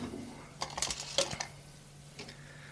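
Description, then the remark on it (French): A metal hammer on an impact-testing machine drops from a raised position and strikes and breaks a sample, such as a small branch or piece of wood: a short cluster of sharp, bright metallic clanks and rattles, followed by a fainter clink a moment later. “donc là, on a le marteau qui descend et qui vient taper sur l'échantillon. Il casse l'échantillon.”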